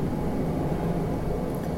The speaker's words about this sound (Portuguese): Desculpa, passou avião.